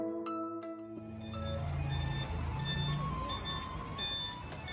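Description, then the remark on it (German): A garbage truck in Taiwan announces its arrival by playing a tinny electronic rendition of "Für Elise" as bright, beeping notes over a steady, loud engine rumble and street noise, as residents bring out their full rubbish bags. No one speaks. “Die Müllautos in Taiwan, die kündigen nämlich mit für Elise ihr Kommen an.”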